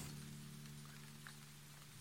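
Steady heavy rain, begun outside, patters against a tent, a dense continuous hiss of drops with a low hum underneath. No one speaks.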